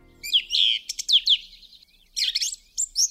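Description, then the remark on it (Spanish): Bright, high-pitched bird chirps come in quick bursts of short, sweeping notes, with a brief lull in the middle. The birdsong is clear, with no talking. “Entonces, eh, le gustaba mucho pues escuchar los pájaros, cogerlos con liga vivos y los traía a casa.”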